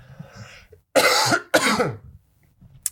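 Two loud, harsh coughs in quick succession from a man who has choked on something, then quiet with faint background murmur and a brief click at the end.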